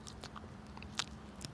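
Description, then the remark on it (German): Quiet crunching and chewing of the tip of a fresh dandelion leaf, with a few sharp bites at the start followed by soft, moist mastication, no talking. “Nehme ich etwas von dem, nehme eine Spitze und frage dich, ob du das essen kannst.”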